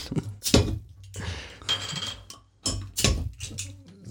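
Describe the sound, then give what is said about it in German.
A bottle of Früh Kölsch beer being opened: a series of sharp clinks and scrapes of glass and metal, a short ringing tone, and bursts of rustling handling, with no talking. “Ähm, da würden wir dann einmal mal versuchen, das aufzumachen.”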